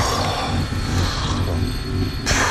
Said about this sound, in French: C'est quoi ce bruit Oh là là, l'horreur Ils sont au marteau-piqueur sous mes fenêtres, quoi.